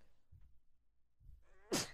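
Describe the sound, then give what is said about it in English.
A single loud sneeze bursts out near the end, a short voiced intake sliding into a sharp hissing blast, preceded by a few soft low thumps in near silence. “Oh, bless you.”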